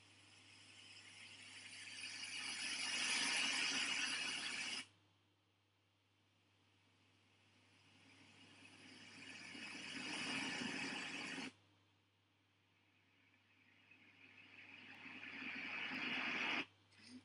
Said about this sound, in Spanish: Bien, pues, eh, pues mm, primero tenemos, ya digo, este ruido blanco, que aquí te vienen varios tipos,